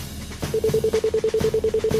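A phone line's call routing tone as a call is placed: a rapid, steady train of short, identical electronic beeps that starts after a brief pause and carries on at an even pace, clear.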